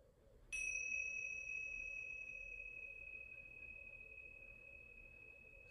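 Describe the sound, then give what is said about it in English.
A single strike of tingsha bells during a guided meditation rings out clearly, a bright high-pitched tone that sustains and slowly fades over several seconds, alone with no voices. “I will ring the Tingsha bells three times.”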